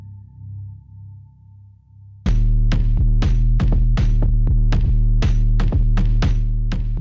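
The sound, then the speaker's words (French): Ominous, anxious music from a video by the European Union Agency for Fundamental Rights opens with a low pulsing drone, then swells abruptly into a loud, heavy bass tone struck by steady, rhythmic throbbing hits, tense and unrelenting, with no voices. “Ce que vous entendez, c'est un extrait d'une vidéo de l'Agence des droits fondamentaux de l'Union européenne, avec une musique angoissante à l'image des résultats de la dernière étude de cette institution.”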